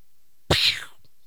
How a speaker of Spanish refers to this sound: Se dan la vuelta, se miran, cada uno desenfunda su pistola, apunta al otro, empiezan a caminar, a caminar, a caminar, a caminar. Y suena un disparo